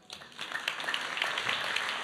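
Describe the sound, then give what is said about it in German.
Warm applause from a small group for four volunteers playing lepers in a biblical reenactment, a steady patter of many overlapping claps that rises quickly and holds at a moderate level for a couple of seconds, with no voices over it. “Lassen vier Aussätzige einen warmen Applaus geben.”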